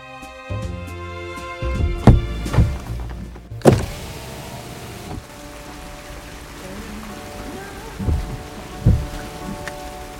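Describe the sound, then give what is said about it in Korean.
A car's power window hums as it is opened on a rainy day so an arm can reach out holding a mobile phone toward music from a café, with a few thumps and clunks over a steady background of rain patter; no one speaks. “창문을 열고 팔을 뻗어 휴대전화를 내밀어서 카페에서 흐르는 음악을 남편에게 들려줍니다.”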